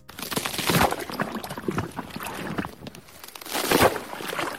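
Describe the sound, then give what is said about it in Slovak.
Frozen lake ice cracks and groans, two loud sweeping bursts ringing out over a steady crackling, watery-sounding texture, with no voices. “Takže len pre predstavu, ak vstúpime na na zamrznuté jazero a budete pod sebou počuť toto.”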